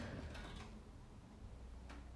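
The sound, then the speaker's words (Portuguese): A door is opened by someone while a person is recording, with a soft mechanical rattle and click of the handle, followed by a brief second knock of the latch, fairly quiet against a low hum with no talking. “Estou aqui a gravar, sim. Podias ter fechado a porta.”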